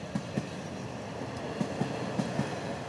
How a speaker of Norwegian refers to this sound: Ikke slik. Altså tog, ikke bil.